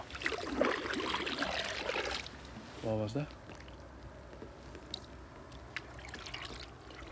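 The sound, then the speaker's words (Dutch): A sudden burst of rustling and thrashing into reeds at the water's edge lasts about two seconds, then a voice speaks briefly over a quiet backdrop of insects and trickling water. “omdat we het niet in het water hebben zien of horen duiken, denk ik eerder aan een vogel ja. die op de oever zat en uh, eh, in het riet is ingedoken, dan dat het een bever was die, eh, die het water ingegaan is.”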